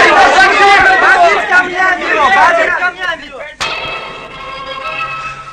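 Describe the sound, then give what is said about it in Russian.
A loud, dense, enraged crowd of the Sanhedrin roars and shouts together for a few seconds, calling for Stephen's death, then breaks off at a sharp crack, leaving a ringing, echoing tone. “Услышав страшный рев Синдрионе, жена Стефана побледнела и упала без чувств, ударившись головой о каменную плиту.”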